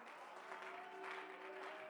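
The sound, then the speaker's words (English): An audience at a Tuesday evening church service in Olathe, Kansas claps their hands in praise of the Lord, a dense, steady wash of applause for two seconds, with faint sustained musical tones humming underneath and no speech. “I think it'd be good if us to clap our hands right now.”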